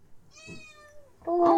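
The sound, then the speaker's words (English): Stevie, a female kitten, meows twice: a thin, high, drawn-out mew that fades away, then a louder, brighter cry that rises at the end. No one speaks. “Let's see if uh, we can get a Stevie, little kitty cat.”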